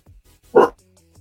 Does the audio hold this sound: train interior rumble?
no